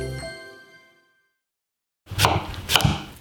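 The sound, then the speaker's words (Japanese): A bright chime rings out and fades. After a pause, a knife chops through daikon radish on a cutting board with two firm thuds over a busy kitchen background. A whole daikon is being prepared for a pork mizore hot pot. “今朝は大根を丸々一本使う豚みぞれ鍋のいい音”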